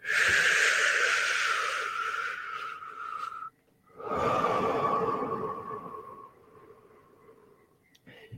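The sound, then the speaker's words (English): Two long, deep breaths drawn slowly, each a steady airy rush that fades out, separated by a brief pause, with no talking. “Consciously sucking in that air slowly, deliberately, deep into your lungs, and then slowly breathing it out.”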